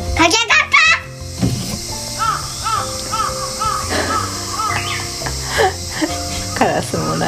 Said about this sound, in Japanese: すごいねセミも泣いてるね